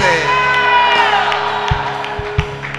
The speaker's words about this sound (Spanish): Todos los que están contentos de estar en la casa de Dios dicen un gloria a Dios bien fuerte.